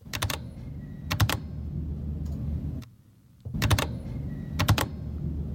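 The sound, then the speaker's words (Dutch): Sharp keystrokes on a Vortex Race 3 mechanical computer keyboard land in quick pairs, Command-C and Command-V for copy and paste, four clusters spread over a low steady background hum, clear with no talking. “Eh, nou, het is mijn eh, toetsenbord waarmee ik Command-C, Command-V doe.”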